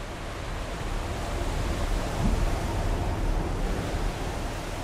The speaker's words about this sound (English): Big waves. Incredibly big waves. And still it was so quiet in the harbor when she left. Black water, strong currents, Africa so close, only 14 kilometers away, on the other side of the Strait of Gibraltar.